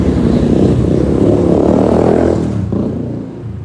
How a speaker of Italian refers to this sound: ecco, preparatevi che arriverà un casino, sento già proprio le moto.